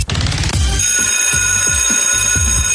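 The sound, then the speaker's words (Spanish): A loud alarm clock bell rings continuously, a rapid metallic clatter sustained for a few seconds with no voices. “Se acabó el recreo, sonó el ring del despertador.”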